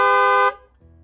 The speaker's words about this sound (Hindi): अचानक एक तेज हॉर्न से नीलेश का ध्यान